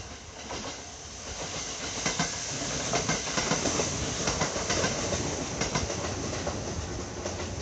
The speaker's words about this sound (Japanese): はいはい続いて近鉄準急名古屋方面の音